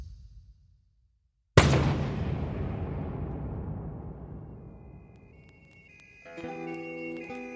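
After a moment of near silence, one loud gunshot cracks as a man shoots himself with his last bullet, ringing out in a long echoing decay. Sustained tonal sounds swell in near the end. No one speaks.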